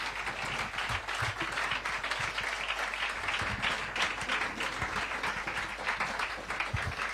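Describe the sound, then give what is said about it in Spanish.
Steady audience applause welcoming Guille Galván, author of the book Retrovisores, many hands clapping in a dense, continuous wash of sharp claps that holds at an even loudness for several seconds with no voices. “Por eso recibo con este aplauso a Guille Galván.”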